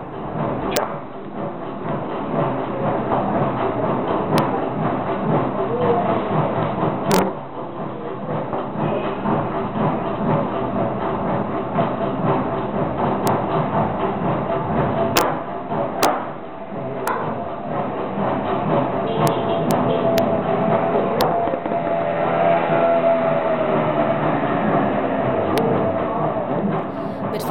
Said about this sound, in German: Ich bin in Trinidad übrigens tatsächlich nochmal zurückgelaufen und habe meinen Ventilator eingefangen.